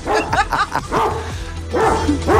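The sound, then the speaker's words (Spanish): A dog barks loudly in a rapid, uneven string of sharp barks and yips, with a brief lull in the middle before the barking picks up again. “Deben de amarrar ese perro, sí o no.”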